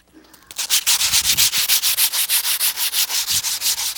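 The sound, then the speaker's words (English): Sandpaper rubs back and forth in a steady, fast rhythm, a loud, gritty scratching repeated about every fifth of a second with no voices. “Okay, what's it? Sandpaper.”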